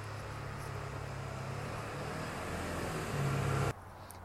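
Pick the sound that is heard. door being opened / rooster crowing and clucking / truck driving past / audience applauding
truck driving past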